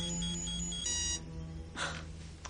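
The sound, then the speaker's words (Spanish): A bright electronic computer alert tone, as an alert window pops up on screen while a decoding program runs, rings out in steady harmonic bursts for about a second, then cuts off, followed by a short breathy whoosh over a low background hum. “Pero una ventana de alerta vuelve a saltar.”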